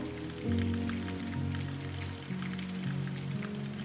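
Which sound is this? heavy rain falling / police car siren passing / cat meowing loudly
heavy rain falling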